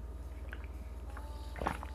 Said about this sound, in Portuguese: Ai, já tomar água que eu tô falando muito, nossa.